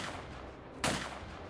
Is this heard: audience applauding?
no